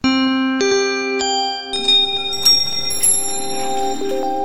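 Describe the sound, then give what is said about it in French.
A short, bright chime jingle played to introduce the first news item, layered bell-like tones, each new note struck every half second or so and ringing on over the others, building into a shimmering cluster. No voices. “On lance un petit jingle et ça fait écho, ça fait écho juste à la chronique.”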